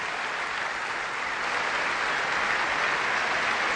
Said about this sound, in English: you can hear the applause from both the Bedford and Portsmouth fans here.